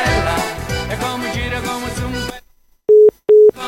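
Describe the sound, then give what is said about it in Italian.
A phone busy signal from a failed call to a radio show sounds after a stretch of dense, loud music that cuts off: two steady, mid-pitched tones, each about a third of a second long, separated by a brief gap of silence. “Dai, richiama, richiama, richiama!”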